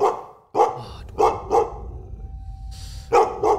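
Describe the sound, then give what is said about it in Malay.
A dog barks loudly and repeatedly in short, sharp bursts, about five barks with brief pauses between them, over a low rumbling background. “Aku marah kat anjing ni.”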